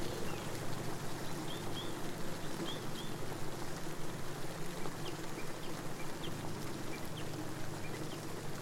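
Steady rain falls in a dense, even patter that holds at the same moderate level throughout, with a few faint, high, bird-like calls in the background and no voices.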